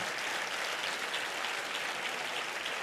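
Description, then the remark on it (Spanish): A crowd applauds God steadily, a dense, continuous wash of many hands clapping at once, sustained and even in loudness for a few seconds with no talking over it. “Si usted quiere, usted aplaude a Dios y si no, no.”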